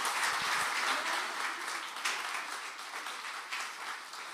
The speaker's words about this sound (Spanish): Denle un fuerte aplauso al Señor si le vamos a aplaudir a él. Amén.